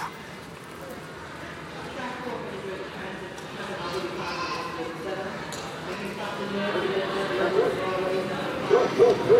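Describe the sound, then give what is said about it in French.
A dog barks a few times over a busy background of murmuring voices and street ambience, the barks becoming louder and clearer toward the end. “Si vous avez spécialement peur des chiens ou des chats ou des oiseaux, vous avez sans doute fait plus attention et repéré les aboiements ou les miaulements ou les chants d'oiseaux.”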